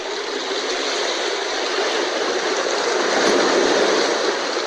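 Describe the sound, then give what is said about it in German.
Steady, roaring wash of waves of a large sea, loud and continuous, with a gentle swell in intensity partway through as surf rolls in. No voices, just the dense rushing water noise throughout. “Oh, jetzt sind wir schon an einem größeren Meer, glaube ich.”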